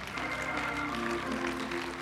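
A crowd applauds steadily for about two seconds, a dense, even wash of clapping with faint murmuring voices woven through it.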